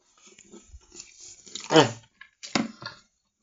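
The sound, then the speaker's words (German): Wet chewing and slurping of a mouthful of noodles with tomato sauce, onions, zucchini and peppers, with irregular smacking bursts and a louder squelch midway, then a few softer mouth sounds. “Ich muss jetzt nochmal einmal hier reinbeißen.”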